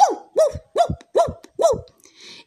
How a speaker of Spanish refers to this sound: de no ser porque unos perros lo vieron y comenzaron a ladrar y comenzaron a ladrarle al patico.